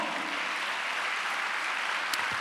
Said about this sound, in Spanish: dale un aplauso al Señor, hermano.